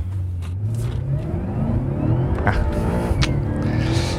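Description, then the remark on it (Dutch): A powerful, big car engine revs steadily higher, its deep rumble climbing in pitch over several seconds, loud and continuous, played back through small speakers. “Dit is dus met, hè? via de speakertjes, het geluid van een... Nou, een dikke motor.”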